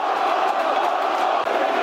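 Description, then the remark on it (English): A football crowd bays for a red card in a sustained, dense wall of voices, loud and steady throughout with no pauses, angry shouts blending into one continuous din. “Crowd baying for a red card.”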